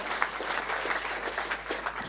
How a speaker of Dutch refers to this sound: We hebben ook een samengestelde band. Misschien goed om hen ook even aan te moedigen met applaus, want zij zijn niet gewend om met elkaar te spelen.